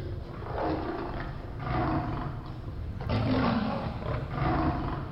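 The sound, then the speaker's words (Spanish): Deep, rumbling lion roars swell and overlap across the whole stretch, loud, with a throaty growl rising and falling in waves and no talking. “Leí el pasaje y la historia y eran siete leones en una cueva bajo, bajo tierra.”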